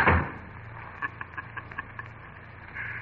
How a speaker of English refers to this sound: I'm sorry if the slamming door startled you. What's that? Just the bolt sliding into the socket on my front door.